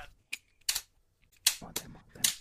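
A small box lid snaps open and shut several times, about six crisp, bright clicks in an uneven rhythm with short quiet gaps between them and no talking.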